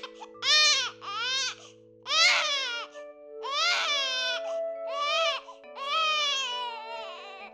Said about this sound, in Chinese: 这个旁边那个生病的小孩啊，果然哭了一整个晚上，哎。